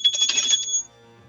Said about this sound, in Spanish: Usted se preguntará por qué escuchó el ruido de una campana o vio que lo hice a través de la televisión.